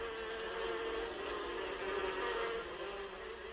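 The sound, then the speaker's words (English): A dense, continuous drone of many honeybees buzzing around brown and white beehives in an apiary on a farm at Crocodile Pools, a steady hum that rises and falls slightly in loudness without pause, with no voices present. “He is giving me a tour of the brown and white beehives dotting the apiary.”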